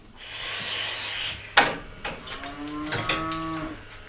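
A dairy cow moos in a barn on a farm with a herd of 15 to 16 cows, a long low harmonic call in the second half, preceded by rustling and a sharp wooden knock, with a steady hum in the background.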